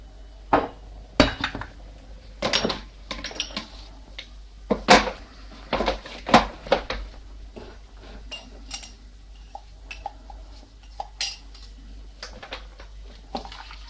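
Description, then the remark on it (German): Cups and dishes clink and clatter as someone gets and pours coffee, a string of sharp, bright knocks, with bursts of several quick clinks followed by sparser, quieter taps and a low steady hum underneath. “Mit den Stöpseln im Ohr ist echt schlimm, wenn man sowas, weil also wenn man sich so Kaffee einschenkt oder so, wenn man nicht gucken kann, macht man das ja hauptsächlich nach Gehör und nach Gefühl.”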